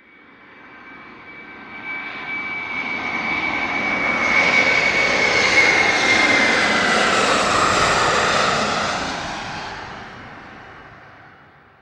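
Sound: airplane flying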